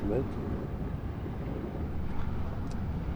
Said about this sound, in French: Ça fait un espèce de roulement continu avec des vagues qui éclatent. Alors ce sont des petites vagues, hein. ça, monte à 50 cm.